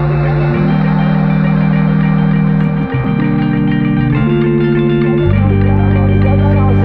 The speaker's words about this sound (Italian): vi mandiamo un po' pochino di musica perché è giusto anche che voi ascoltiamo un po' di musica qui su RVS